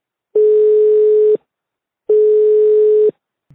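Two steady electronic telephone ringing tones, each lasting about a second with a short pause between, loud and clear with no one speaking, like a call waiting to be answered.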